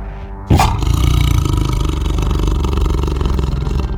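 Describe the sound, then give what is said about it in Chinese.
After a brief quiet moment, an angry tiger, caught in a hunter's trap and scolded by a small turtle, lets out a single loud, deep roar that bursts in suddenly and rumbles on, rough and sustained, for several seconds without any talking. “呃，老虎真的生气了。”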